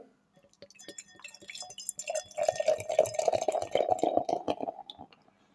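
Huppendorf beer, from a brewery near Bamberg, is poured into a glass: a gurgling, splashing stream that swells after a couple of seconds, with a steady rising tone as the glass fills, then tapers off. No one speaks.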